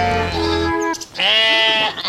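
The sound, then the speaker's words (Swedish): Two loud sheep bleats follow one another, the first wavering and low with a rough edge, the second higher and strained, from Finnsheep, Gotland and young first-time lambing ewes in a barn during the year's second lambing in Liden, Sweden, with no one speaking. “nu lammar vi finlustacker och lite gotlandstacker och lite ung, ja, förstagångslammare också.”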